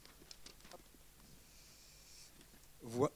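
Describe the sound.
Soft, scattered crackles and shuffles of papers being handled as someone searches through them, quiet, with a few brief taps early on and a short burst of a voice right at the end.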